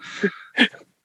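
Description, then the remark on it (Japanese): A short burp, let out by a speaker before unmuting during a conversation, comes out in two quick bursts, a rough breathy rumble followed by a slightly louder gulping release, with no talking around it. “まあ、ミュートを進んで前にゲップしちゃった。”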